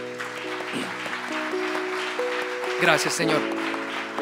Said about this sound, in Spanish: Denle un aplauso al Señor.